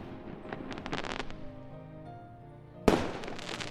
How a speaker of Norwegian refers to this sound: Ut av alle vinduene på Møhlenpris skinte det lys, og av og til ble nattehimmelen lyst opp av fyrverkeri.